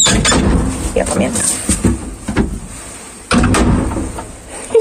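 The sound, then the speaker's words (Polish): An old elevator with wooden double doors, in a building stairwell, clatters and bangs open and shut with several sharp knocks and a rumbling mechanism, while a person speaks briefly over the noise. “Kto pamięta takie windy?”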